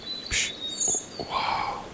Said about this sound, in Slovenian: In pšš smo namreč v gozdu.